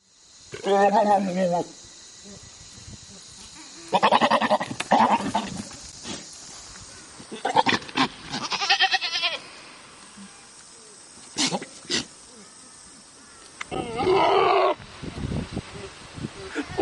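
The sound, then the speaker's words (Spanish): Several loud, wavering goat bleats come in separate bursts with pauses between them, clear, along with some scattered rustling and short noises. No one speaks. “Despedir un programa con una cabra.”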